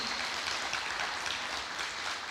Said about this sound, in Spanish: Eso, déle ese fuerte aplauso a Dios.